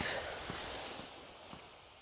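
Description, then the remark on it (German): A soft, steady wash of ocean surf rolls in at a beach, with faint crests of breaking waves rising now and then over the constant hiss. No one speaks. “Du hörst vielleicht die, die Wellen schlagen.”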